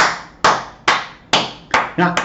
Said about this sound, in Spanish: debería ser realmente una hora de aplausos. Eso es lo que debería hacer este programa.